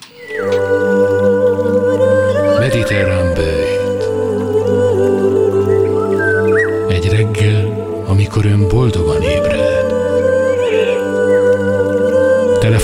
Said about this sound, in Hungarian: A mediterránből egy szignált megtaláltam.